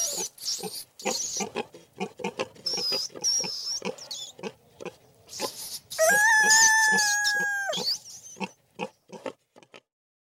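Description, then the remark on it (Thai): A pig grunts in a rapid run of short oinks throughout, broken midway by a sustained high-pitched call lasting about two seconds. No one speaks. “มีเสียงอะไรบ้างเอ่ย ไก่อ่าหมูอ่าใช่เลย แล้วก็มีอะไรอีกชนิดหนึ่งนะ หนู นั่นเองครับ”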